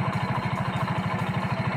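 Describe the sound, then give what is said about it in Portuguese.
A diesel engine idles steadily, its low, rapid chugging pulses repeating in an even rhythm with a rough mechanical rumble. No one speaks. “É o motor a diesel.”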